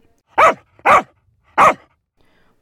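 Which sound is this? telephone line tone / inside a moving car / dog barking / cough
dog barking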